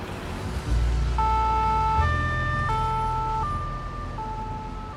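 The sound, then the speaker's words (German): An ambulance siren alternates between two tones in a steady hi-lo pattern over a low rumble of engine and street traffic, as an injured man is carried into the ambulance on a stretcher. “Dann wird der Mann auf einer Bahre in den Rettungswagen gebracht.”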